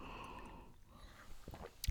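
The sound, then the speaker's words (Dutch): A quiet sip of tea: soft slurping and mouth sounds with a breathy exhale, ending in a brief sharp knock. No one speaks. “Nou, voordat ik ga beginnen, even een slokje thee.”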